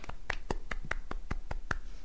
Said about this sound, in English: Yes, clap clap.